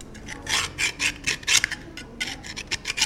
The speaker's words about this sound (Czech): Jsme ve včelné a strouháme právě tady sůl přímo na chleba.